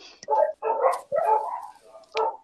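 A dog lets out four barks in quick succession, some drawn out almost into yelps, with short gaps between them and no one talking over it.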